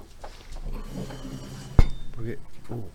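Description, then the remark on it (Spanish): Cups and dishes clink while coffee is being made. One sharp, ringing clink stands out above softer clatter, and people talk quietly throughout. “Este, ¿Querés, hacemos más café?”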